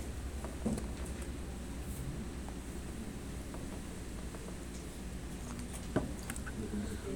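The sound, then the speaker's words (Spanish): Steady rain falls in a continuous wash of hiss, with scattered soft drips and taps and a low rumbling undertone throughout. “Sigue lloviendo, ¿verdad?”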